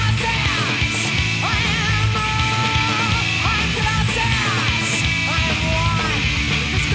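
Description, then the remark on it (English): A loud, dense mid-90s riot grrrl style rock song plays continuously, with distorted guitars filling the mix and raw, shouted vocals sliding over the top throughout. “Oh, yeah, it's got a little … like like mid No '90s mm-hmm. uh, riot girl kind of oh, vibe.”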